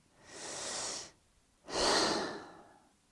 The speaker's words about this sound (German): Ausatmen. Eventuell ein Gähnen. Und ja, das ist ein Zeichen, was du spürst.